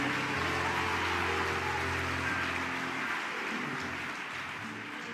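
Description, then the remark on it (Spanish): An audience in Panama applauding: a steady, dense wash of many hands clapping for about five seconds at an even loudness, with no voices over it. “En Panamá están aplaudiendo.”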